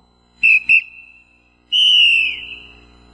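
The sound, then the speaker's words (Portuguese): A referee's whistle sounds two short sharp blasts, then a longer piercing blast that trails off, loud with no talking. “Porque an anteriormente ele usava só o apito”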